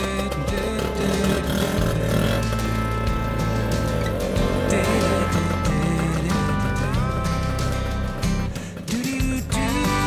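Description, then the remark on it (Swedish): A Vespa motor scooter engine drones loudly and steadily, its pitch rising and falling as it revs and shifts, then slowly trailing off as it drives away. “där åker Marcus Kvarnström, eller skoteristen Marcus Kvarnström, iväg med sin Vespa”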